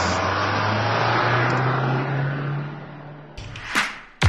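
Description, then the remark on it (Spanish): A car engine runs with a steady low rumble for a few seconds, then breaks into a couple of sharp, louder bursts near the end, with no voices. “Ha llegado el momento de encender motores.”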